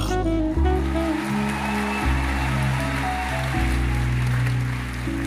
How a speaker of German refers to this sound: Begrüßt mit einem donnernden Applaus